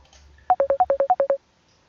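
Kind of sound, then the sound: signal or alarm, telephone dialing and ringing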